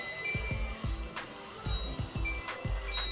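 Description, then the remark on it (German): A small call bell is struck over and over in quick succession, each tap giving a short metallic ding with a dull knock underneath, fairly quiet and with no one talking. “Ich hör auf mal zu klingeln, Klingelglocke.”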